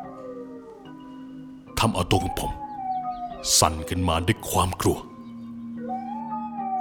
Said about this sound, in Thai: ในช่วงที่หมายังคงหอนไม่หยุดไม่หย่อนอยู่นั้น